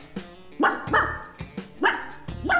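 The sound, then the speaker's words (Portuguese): A dog barks about four times in sharp, loud bursts spaced unevenly across a few seconds, played by an Alexa smart speaker on voice command, with no one talking. “Alexa, late.”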